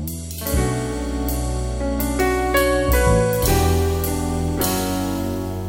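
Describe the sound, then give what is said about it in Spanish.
The instrumental introduction of a song from a female singer's album plays loudly and steadily, with rich sustained chords shifting every second or so and bright chiming notes on top; no voice is heard yet. “Entonces vamos a escuchar ….”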